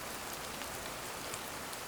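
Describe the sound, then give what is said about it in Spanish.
Steady rain patters softly on leaves and plants, a continuous, even hiss of countless drops with no voices, at a gentle, quiet level. “Poco después de permanecer así, escuché que algo inquietaba el sereno diálogo de la lluvia y las plantas.”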